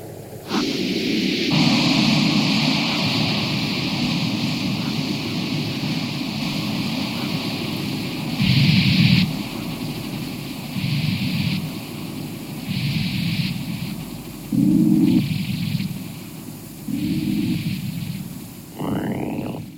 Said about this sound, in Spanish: Solo música electroacústica.